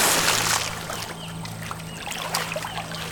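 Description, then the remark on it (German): A rushing, sliding whoosh gives way to continuous watery swishing and gentle splashing, with a low steady hum underneath and no voices. “Die beiden lassen die Wurzeln los und gleiten wie auf einer Rutschbahn durch etwas”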